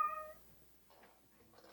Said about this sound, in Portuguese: Só um minuto aqui, deixa eu abrir a porta para minha gata. Opa, fica à vontade.